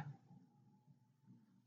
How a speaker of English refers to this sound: Holy shit. I wonder if the mic picked that up. That was, that was my stomach growling.